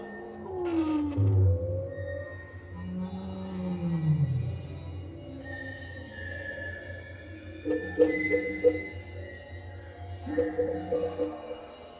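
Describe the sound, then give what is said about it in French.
A hollow, booming resonance inside a small plastic water container, with a deep low hum, drawn-out eerie tones and a few light taps ringing out near the end, reverberant. “Là par exemple nous passons à côté d'un bidon un bidon d'eau, euh, les, containers, les petits containers d'eau, un peu comme euh, les bidons d'eau euh, où nos grands-parents stockent leur eau de pluie.”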